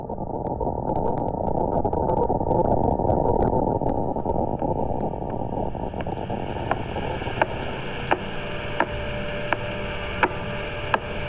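Radio pulses from a very old pulsar star rendered as sound: a steady roar of hissing static, out of which sharp, evenly spaced clicks emerge halfway through, ticking regularly about once every two-thirds of a second.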